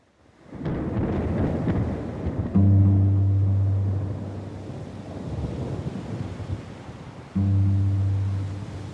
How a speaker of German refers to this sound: Ein Sturm fegt über die schleswig-holsteinische Ebene. Mit Regen, kaltem Wind und Hagel.